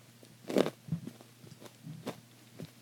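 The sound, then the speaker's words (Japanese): Crinkling and rustling of a chocolate wrapper followed by a few sharp crunchy bites of chocolate, short irregular bursts against a quiet background with no talking. “ちょっとチョコレート食べてもいいですか 一あどうぞ なかちょっとカロリーがねあの足りなくなってきてもぐもぐしながら話しますどうぞどうぞ”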